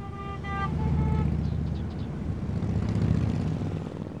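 A big motorcycle engine, Harley-style, rumbles loudly and steadily with a deep, throbbing low-pitched growl for about four seconds, a brief higher-pitched whine at the start, no voices.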